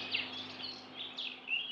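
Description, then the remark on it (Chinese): A lone small bird chirps in a few quick, high-pitched bursts that sweep up and down, with short gaps between them. No one speaks, and a faint steady hum sits underneath. “忽然，白雪公主看到一只孤单的小鸟，就蹲下身子，怜惜的捧起它，说：”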